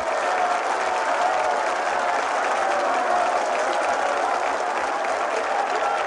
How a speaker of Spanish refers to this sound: Los indios que abarrotan la gran carpa se ponen en pie y aplauden.